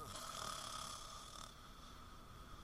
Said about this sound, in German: Jetzt pennt die und, und der, der, der Spritze, der schnarcht hier und, und ich kann jetzt nicht mehr, oder wie?